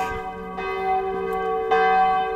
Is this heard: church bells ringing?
yes